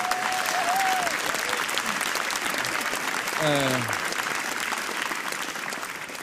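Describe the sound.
A sustained round of applause, dense and steady clapping from a crowd lasting several seconds, with a brief voice and a short tonal sound rising over the clapping.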